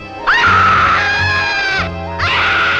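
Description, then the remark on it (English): A person running away down a street lets out two long, loud, high-pitched screams, the first sustained for over a second, then a brief pause before the second begins. “I realized that I had murdered it, and I took off screaming down the street.”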